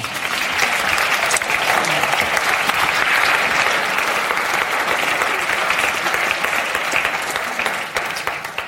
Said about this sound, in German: Herzlichen Applaus nochmal.